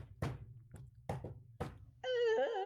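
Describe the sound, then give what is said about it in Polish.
Five dull, heavy thumps land at uneven intervals like knocks against the wall of a broom closet under the stairs, over a low hum. Then a short, loud, wavering wail, like a moan or a cat's cry. “uderzenia o y, ściankę, tak jakby.”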